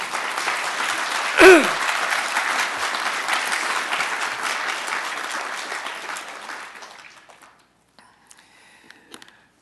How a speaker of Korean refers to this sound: 양해가 되셨으면 박수 한번 부탁드립니다.